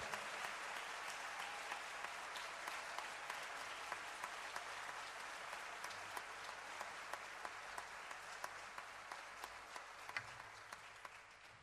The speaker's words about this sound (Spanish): El gran Alfredo Sadi, gracias Alfredito, de mi corazón. Parate, maestro. Alfredo Sadi, un fuerte aplauso.